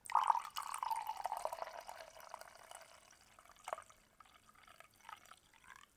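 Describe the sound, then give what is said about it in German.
Coffee is poured very close to the microphone, a bright gurgling stream that starts strong and slowly tapers off, followed by a few scattered drips and small splashes. No one speaks. “Ah, da kam der Kaffeebrüt noch hinterher.”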